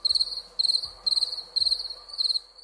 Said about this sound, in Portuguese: E aí deu aquele barulho de grilo no, no telefone, né?